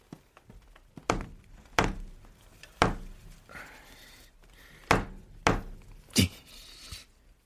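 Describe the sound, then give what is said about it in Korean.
A rubber mallet thuds against an apartment wall toward a neighbour's home, in protest at noise, about six times, each blow a sharp, solid knock with irregular pauses between, fairly loud with no talking. “이웃집에서 소음을 낼 때 그 집 방향의 벽이나 몰딩을 고무망치로 쳐서 항의를 해보라는 것이었죠.”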